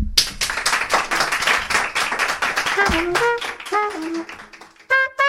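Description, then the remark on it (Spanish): A live audience at the Club de Jazz radio programme applauds sound technician Raquel Cordonier with dense, steady clapping; after a few seconds the clapping thins and a few high, pitched whoops or whistles ring out over it before it ends. “Hoy tengo técnico de sonido, hacía 20 años el Club de Jazz no se hacía con técnico de sonido, Raquel Cordonier, y tengo público que va a aplaudir a Raquel Cordonier.”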